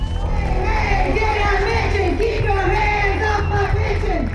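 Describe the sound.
A large rally crowd of state workers, educators and retirees on the steps of the Kentucky state capitol, demanding their pensions, shouts and chants together in a steady, loud roar of overlapping voices, sustained throughout with rising and falling pitched yells.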